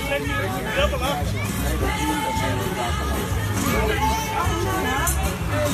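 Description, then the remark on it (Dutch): A steady hubbub of crowd chatter at the Dutch tent-pitching championship (NK tent opzetten) at Camping de Haar, many overlapping voices talking at once with no single voice standing out, holding an even, lively level throughout with a low rumble underneath. “Sfeerimpressie, hè? Oeh, dat is gezellig.”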